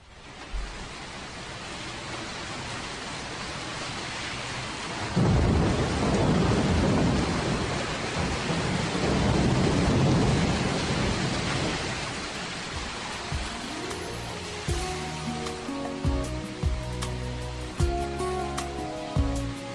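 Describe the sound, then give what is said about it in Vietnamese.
Steady heavy rain hisses throughout on a city street at night, swelling into a loud, rumbling roll of thunder that sweeps through the middle before easing back into downpour, with low crackling rumbles near the end. “Trời đổ mưa như trút, làm cho con đường phố về đêm thêm ướt nhòa.”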